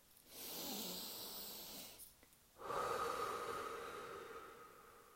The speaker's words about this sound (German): Und jetzt atme mal tief ein und aus